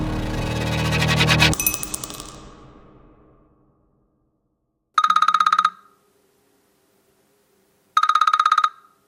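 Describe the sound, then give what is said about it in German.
A loud, fading burst of sound gives way to silence, then the mobile phone of a doping expert and investigative journalist rings in early summer 2018, its ringtone trilling twice in short, evenly spaced bursts, clear with no talking. “Das Telefon, das da klingelt, ist das von Hajo Seppel”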